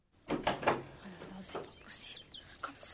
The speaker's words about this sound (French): Dis donc, mademoiselle, ce n'est pas comme ça que je t'ai appris à fermer une porte.